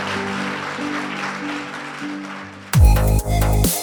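A church audience applauds after a closing prayer in a steady, dense patter over a soft sustained musical chord, then a loud burst of music abruptly takes over for the final second.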